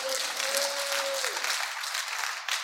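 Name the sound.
audience clapping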